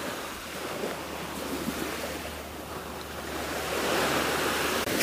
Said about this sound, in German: Vielleicht hörst du jetzt hier im Hintergrund, dass es ganz schön rauscht und es sich irgendwie so anhört, als sitze ich am Wasser. Und ja, das ist wirklich so. Ich sitze hier gerade auf den Malediven in meiner Hängematte